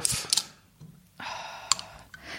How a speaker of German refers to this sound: Energy Drink auf, okay?